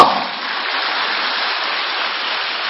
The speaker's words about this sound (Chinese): 鼓掌